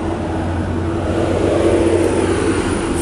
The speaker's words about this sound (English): fucking truck, motherfucker.